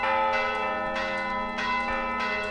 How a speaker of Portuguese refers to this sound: o toque ou o repique dos sinos a marcarem o cotidiano em Sendim, Miranda do Douro. Portanto, lá está a pergunta que o senhor me fez. Os sinos marcavam ao dia. Os sinos a marcarem o dia. O sino ainda vai marcando o cotidiano aqui das nossas terras.